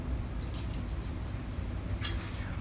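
Water pours steadily in a continuous splashing trickle as a plant is watered, with a couple of brighter spattering bursts as it hits the surface. No voices are heard.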